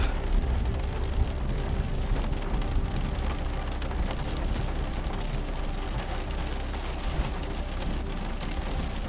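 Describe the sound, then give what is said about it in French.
A deep, continuous rumble of an approaching thunderstorm rolls on steadily beneath a dense hiss like falling rain, with no voices and no distinct individual cracks. “Les oiseaux, qui continuaient à chanter près de vous, se taisent peu à peu, laissant place au grondement qui se rapproche.”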